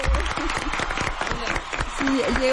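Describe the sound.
A brief burst of audience applause, a dense, steady patter of many hands clapping at moderate volume, with a voice or two sounding faintly through it.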